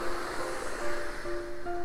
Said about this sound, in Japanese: 今日はかなり海が荒れていて、えっと、雨が降ってまして、えー、っと波を波も結構高くて、